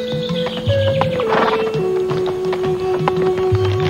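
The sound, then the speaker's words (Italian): A horse's hooves clip-clop in a steady rhythm at moderate volume, with a sustained whistling tone and some background noise running over the top. No one speaks. From an advertisement for Dufour Big Fruit sweets featuring a greedy horse. “Cavallo goloso.”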